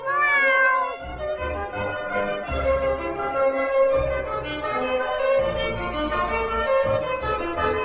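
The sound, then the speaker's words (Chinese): A fat cat cries, letting out a loud, high, drawn-out meow that bends in pitch, then keeps up a steady wailing, crying tone for several seconds, with no one talking. “哎，臭肥猫啊，你干嘛？你干嘛哭啊？”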